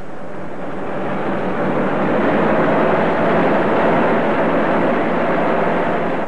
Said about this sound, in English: A car traveling fast along the road to Eastwood its twin lights cutting beams in the darkness of the night,